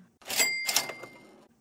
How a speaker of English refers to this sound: This week on Work in Progress, we talk about money. Cha-ching! Do we have a cash register?